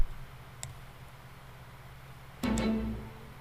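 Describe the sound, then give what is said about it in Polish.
A faint, brief click sounds early on, then after a pause two sharper clicks start video playback, and a steady low hum of the playback audio begins, fairly quiet, with no talking. “A teraz muszę sobie tylko tutaj wam kliknąć, żebyście mogli to słyszeć i ja się wyłączę.”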